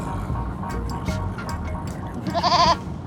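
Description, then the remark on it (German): A goat lets out one short, quavering bleat near the end, its trembling voice rising clearly over a steady low rumble of background noise. “Die Ziegen, man kann reden, sie können lachen.”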